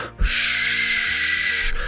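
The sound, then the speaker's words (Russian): A voice imitates the quiet cooling fan of a MacBook, heard at night in dead silence: one steady, breathy hiss held for about a second and a half, fairly even in loudness, with no talking. “Ты такой, да, но в гробовой тишине ночью я слышу вот это тихое”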